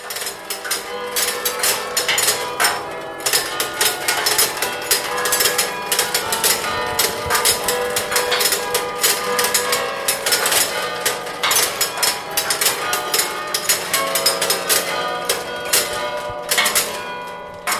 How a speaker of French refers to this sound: lorsqu'il n'y a pas de carillonneur, il y a un énorme cylindre qui rappelle un peu euh, celui des boîtes à musique, qui s'actionne et qui enclenche le mécanisme des marteaux qui viennent frapper sur le métal des cloches.